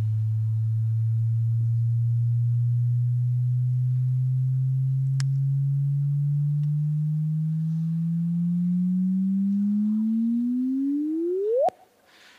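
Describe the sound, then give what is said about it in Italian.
A clean, noise-free interferometer signal sent to a loudspeaker and rendered as sound: a pure, steady low tone that slowly rises in pitch, then sweeps sharply upward and cuts off abruptly at the end. No voices. “Questo in linea di principio è ciò che si sente quando io ho un segnale che è un segnale privo assolutamente di rumore, è il segnale dell'interferometro che viene agganciato, che viene inviato a un altoparlante.”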